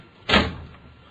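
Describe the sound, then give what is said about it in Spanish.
A door is pushed open with one sharp thump that trails off over a fraction of a second as a wounded man enters, against quiet room tone with no voices. “Mm, cierra con llave la puerta, manita. Mm, ya no. ¿Por qué? Mm, porque ya entró.”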